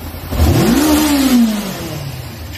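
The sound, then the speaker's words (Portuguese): A V8 car engine whose fuel injection needs fixing revs once: a deep, loud rumble climbs quickly in pitch, holds briefly, then winds back down to a low idle. No one speaks. “Tem que arrumar essa injeção. Não, tá de boa, Tá ouvindo?”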